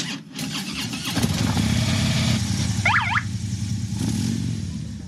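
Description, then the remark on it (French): Motorcycle engines of a group of bikers start up and rev into a steady, loud rumble as the bikes pull away, in Haute-Loire, France, with a brief high-pitched chirp partway through and no talking. “Et on va repartir en moto, bien sûr, on est prêt.”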